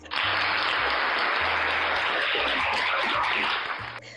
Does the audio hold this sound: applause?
yes